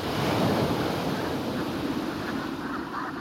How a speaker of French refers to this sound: Alors c'est la course, entre les bernaches qui chipent les algues dès qu'elles le peuvent et les vagues qui grignotent toujours plus de terrain.